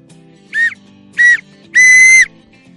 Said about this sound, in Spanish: pitido final, fin del partido y la euforia se desborda en el estadio en una noche inolvidable.